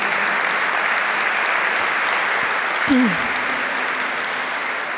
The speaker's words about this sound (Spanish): Dale un aplauso al Señor con todo tu ser.